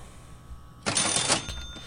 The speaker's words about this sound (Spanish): Venga caja registradora.